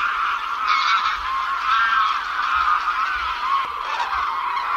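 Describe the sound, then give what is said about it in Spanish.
A dense, continuous chorus of geese and other waterbirds honking and calling all at once, like a huge flock of hundreds of thousands of waterbirds in the Doñana marshes, Spain, in winter, loud and steady without pause and with no one talking. “No tiene nada que ver las marismas o el entorno de Doñana en, invierno cuando en otros inviernos decenas, centenares de miles de aves acuáticas estaban allí vocingleando, gritando.”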